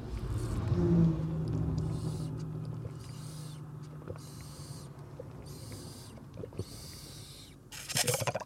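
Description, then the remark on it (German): A fast car roars past on an ordinary country road about 100 meters from home, its engine rumble peaking early and fading away, followed by quieter outdoor ambience and another rush of noise at the end. “Ich weiß nicht, ob ihr den Lärm hier am Rand äh, mit, mitbekommt. Nein, ich stehe hier nicht am äh, Nürburgring.”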